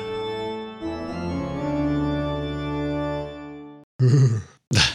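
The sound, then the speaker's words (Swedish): A person lets out a long, drawn-out shuddering groan much like a yawn as a shiver runs through the body, fairly loud, followed by two short breathy exhales. “det låter som att du gäspar. Det var en rysning som gick genom kroppen.”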